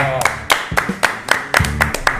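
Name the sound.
people clapping hands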